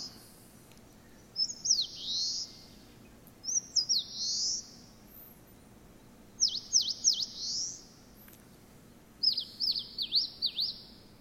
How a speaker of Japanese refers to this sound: これがですね、まあ、聞きなしによるとですね、実はですね、焼酎一いぐいって言ってるように聞こえるみたいです、はい、人の言葉に置き換えたものを聞きなしと呼びますが仙台虫食いのさえずりは、えー、焼酎一杯グイって言ってるように聞こえると